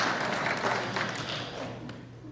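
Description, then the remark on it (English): A roomful of people applauding the speaker's assistant for rescuing him, a dense, steady patter of clapping that stays fairly loud for a couple of seconds before beginning to taper off. “Yes, you can applaud my lovely assistant for rescuing me there.”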